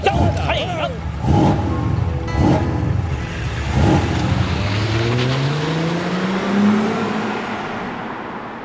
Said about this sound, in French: Vroom vroom.